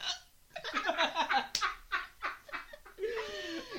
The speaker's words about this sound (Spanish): y, de repente se te arruina por el hipo.